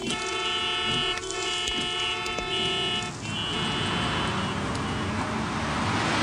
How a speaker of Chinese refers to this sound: 直到后车催促的喇叭声，才让黄潇恢复清醒。